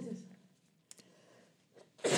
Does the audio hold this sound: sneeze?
yes